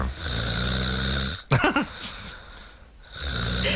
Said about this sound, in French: Ma femme a tellement aimé le goût du champagne que dès 23h, moi, c'est ce genre de musique que j'ai entendu son ronflement vu qu'elle dormait sur le canapé. C'est sa femme qui ronfle comme ça Peut-être un monsieur.